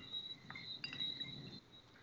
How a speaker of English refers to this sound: And are those frogs we hear in the background?